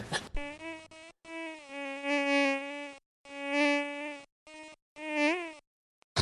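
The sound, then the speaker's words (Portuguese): A harsh, insect-like electronic buzz from a person's microphone cuts in and out in several uneven bursts, loud, with brief silent gaps between them and no voices. “A gente faz um pequeno corte, você tira esse chiado do seu microfone, pode ser?”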